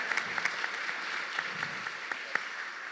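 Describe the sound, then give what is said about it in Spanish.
Steady audience applause for the pastors, a dense wash of many hands clapping with scattered sharper claps standing out, moderately loud and continuous for about three seconds with no talking over it. “Desde que llegamos, sí, un aplauso a nuestros pastores, de verdad.”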